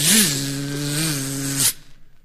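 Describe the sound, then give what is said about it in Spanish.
A voice imitates a buzzing fly: a steady, raspy drone lasting about a second and a half, with a quick pitch swoop at the start and an abrupt stop, alone without talk. “De nuevo la mosca, insistiendo antipático.”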